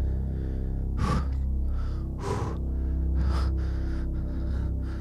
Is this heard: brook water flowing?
no